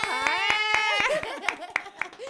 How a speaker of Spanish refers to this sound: Un aplauso